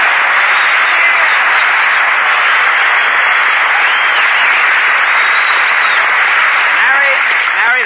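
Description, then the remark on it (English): Loud, continuous studio audience applause fills the whole stretch, a dense, steady wash of clapping with crowd voices mixed in, sounding slightly muffled and narrow like an old broadcast recording. “Applause.”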